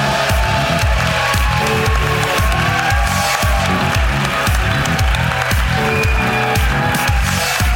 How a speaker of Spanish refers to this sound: ¡Aplauso para Xavi Laura!